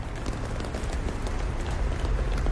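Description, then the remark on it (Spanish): Many people running past at once, a dense, steady patter of quick footsteps over a low rumble, loud throughout with no voices standing out; everyone is running and they seem desperate. “Todos están corriendo.”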